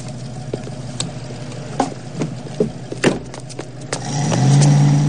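A car engine idles with a low, steady rumble and a few scattered knocks and clicks, then revs louder near the end as the vehicle pulls away.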